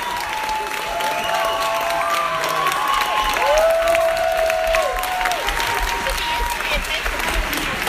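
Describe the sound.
Sustained, dense applause from a large crowd giving a standing ovation at a forum, steady and loud throughout, with faint scattered voices and a brief whistle-like tone rising above the clapping.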